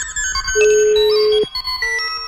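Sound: telephone ringtone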